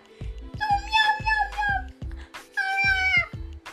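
A cat that cannot catch a mouse meows twice in long, drawn-out, wavering cries, fairly loud, while soft thumping knocks sound underneath. No one speaks.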